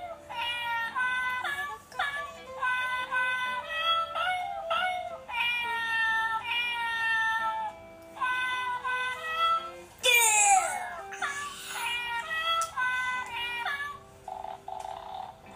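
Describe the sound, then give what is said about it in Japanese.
A toy cat, stroked on its back, gives a run of bright, electronic meow-like chirps and warbling tones in repeated bursts, followed by a rising and falling sweep, with no low purring rumble audible. “喉がぐるぐるなって喜んで”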